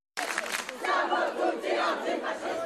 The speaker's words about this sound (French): C'est devenu le cri de ralliement des étudiants en grève. Ce midi, devant la Sorbonne, manifestation improvisée alors que l'université est désormais inaccessible, quadrillée par les CRS.